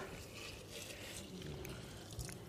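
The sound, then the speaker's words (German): Hot water is poured steadily into a teapot holding sugar and mint, a continuous soft splashing gurgle lasting a couple of seconds, fairly quiet, with no talking. “und jetzt nehmen wir das heiße Wasser und gießen das auf.”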